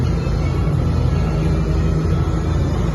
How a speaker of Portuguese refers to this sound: Tem é uma outra equipe de Yamaha. Equipe M4 Suzuki. Tá tendo a moto pit lane aqui, ó.